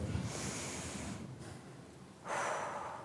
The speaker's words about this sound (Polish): Wdech. Wdech. Zrób wdech. I wydech. Mocny wdech.